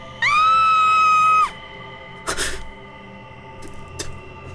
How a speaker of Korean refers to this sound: 미 대사관 정문 앞에서 이정훈의 모습을 지켜본 시민들이 비명을 지르기 시작한다